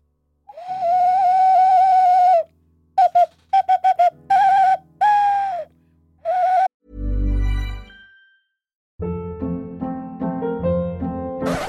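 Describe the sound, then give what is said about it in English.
A Spanish clay whistle ocarina plays a short, breathy melody of long held notes and quick staccato bursts, fairly loud, then gives way to a low thud and unrelated music. “The ocarina pause is where I play a Spanish clay whistle”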